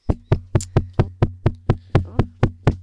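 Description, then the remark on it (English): Steady, rapid banging on a metal roller shutter door, about a dozen loud hits in quick succession, each with a low rattling metallic ring and no voices. “There's someone banging on the roller shutter door again.”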